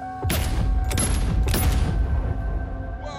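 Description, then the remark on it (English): Three loud gunshots ring out, roughly half a second apart, each a sharp crack followed by a lingering echo over a steady low rumble. “All you hear from there is three shots.”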